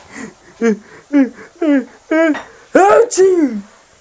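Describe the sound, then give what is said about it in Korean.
A voice acts out a building pre-sneeze inhale through flaring nostrils as the nose itches: a string of six or seven short, rising gasps that grow louder and longer, with no other talk. “나는 코를 벌렁거리며 숨을 들이마셨지.”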